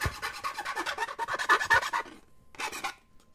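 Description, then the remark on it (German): A metal file rasps back and forth in quick, rough strokes for about two seconds, pauses, then one more brief burst of harsh scraping follows. No one speaks. “Ich bin, ich bin wieder da und hab eine Pfeile.”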